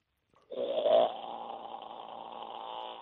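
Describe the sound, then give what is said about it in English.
A man's voice imitates a koala's bellow: a loud, rasping, snore-like groan that starts abruptly, peaks briefly, then drones on steadily for a few seconds. “That's closer to mine than uh, Tim's, who reckons he, his koalas go moo”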